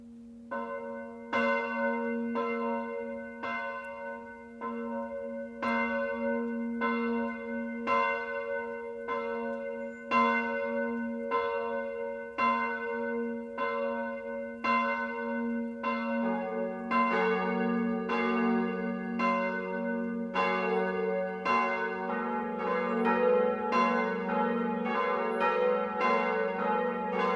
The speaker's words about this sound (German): Und nun läuten Glocken die Weihnacht ein.